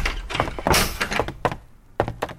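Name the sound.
door being closed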